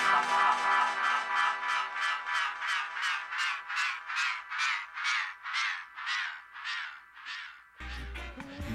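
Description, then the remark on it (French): A seagull gives a long run of loud, harsh cries, about two per second, without other sounds, before a brief burst of something else cuts in at the end. “Yes, ça, il est mouette”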